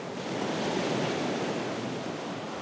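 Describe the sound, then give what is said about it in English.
A steady, broad roar of surf fills the scene, waves washing continuously against a shore with no distinct individual crashes, fairly loud, with no voices. “It's going to drive stronger winds, probably higher intensity storms, greater wave power, bigger waves hitting more often.”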